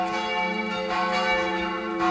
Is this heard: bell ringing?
yes